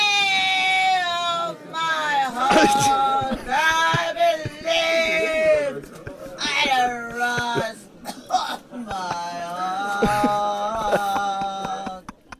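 A woman sings a cover of a pop ballad on the Stockholm subway, loud and off-key, holding long wavering high notes with brief breaths between phrases, while occasional clatter and hiss sound in the background.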